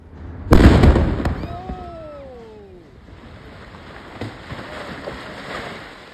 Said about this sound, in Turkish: Bu patlamanın detayları, notları birazdan geldikçe Amerika Birleşik Devletleri'nden bilgi geldikçe yine Çalar Saat'te paylaşacağımız haberler arasında. Bir kez daha görelim mi o görüntüyü?